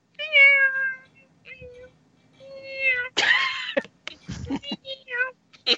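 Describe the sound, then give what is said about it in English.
A female cat meows several times, drawn-out and tonal, then lets out a harsher, raspier cry followed by brief scuffling and clicking noises. “Uh, guess who's in here? And every time I do a show. Cat.”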